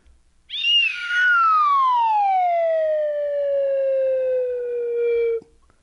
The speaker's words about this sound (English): Good use of slide whistle there. Yeah, it could have been quicker. I yeah, but, it, but it, it, was still good. I mean, timing was a little off, but whatever.